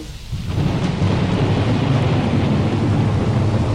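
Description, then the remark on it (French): A thunderstorm at the opening of a song played as a morning alarm: a deep, rolling rumble of thunder swells in within the first second and holds loud and steady over a constant hiss of heavy rain, with no voices. “En fait, je me réveille avec un bruit d'orage.”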